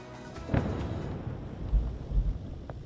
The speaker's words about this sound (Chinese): 硝烟弥漫，炮声隆隆，以军轰炸加萨十六号持续不间断。